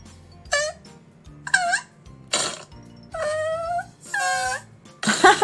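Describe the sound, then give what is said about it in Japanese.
A string of about six cartoonish fart sound effects from a jingle sound library, played one after another with short gaps: some squeaky and wobbling in pitch, others raspier and noisier, all fairly loud with no talking. “こんないらないだろおならばっかり”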